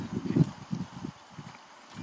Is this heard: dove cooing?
no